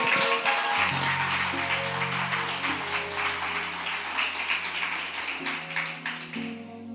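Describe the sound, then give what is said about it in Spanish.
A church audience applauds for the king steadily for several seconds, a dense wash of many clapping hands over sustained low keyboard chords, thinning slightly toward the end. “Aleluya, dale un aplauso al rey.”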